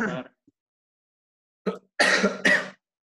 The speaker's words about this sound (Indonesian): batuk sama pilek tapi tapi alhamdulillah belum ya belum positif ya